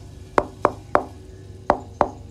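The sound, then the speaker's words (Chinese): Knocking on a house door at night in a quiet village: three firm raps, a short pause, then three more, evenly spaced and fairly loud against a quiet background with no voices. “突然，狗站起来冲着门狂吠，而且就在狗叫的同时，传来了一阵敲门声。”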